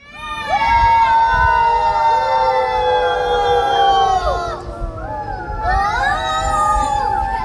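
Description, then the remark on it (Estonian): A group of small children, passengers aboard the boat Jõmmu on the Emajõgi river, shout and squeal joyfully together as it passes under a bridge, in long, high-pitched, overlapping cries that break off briefly, then rise again, loud over a low rumbling background. “see ongi Jõmmu, mis on võtnud peale grupi pisikesi reisijaid, kes silla alt läbi sõites rõõmuga häält teevad.”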